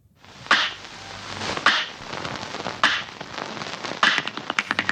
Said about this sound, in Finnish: Mä rakastan semmoisia klikkaavia ja popsuvia ääniä. Hmm. Ne on semmoista korvakarkkia. Klikkaava ja popsuva ääni. Laita se uudestaan.